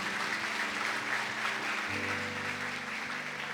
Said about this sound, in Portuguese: Amém, queridos? Você pode dar aí uma salva de palmas para Jesus, amém?